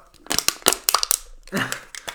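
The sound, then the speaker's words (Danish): A seated person crushes a drink can, giving a run of sharp metallic crackles and crunches over about a second, followed by a brief murmured voice. “nu sidder jeg her og nærmest og folder min, altså sådan... Din dåse.”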